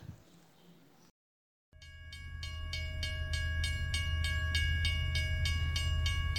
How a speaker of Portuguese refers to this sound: Bom... Esse, esse era um som que todos já conheciam. Na vila da estação, onde Dino morava, do mais novo até o mais velho, já sabia quando o trem das onze estava chegando.